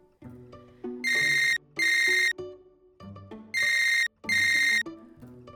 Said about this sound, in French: Sauvé par la sonnerie. Gabriel répond au téléphone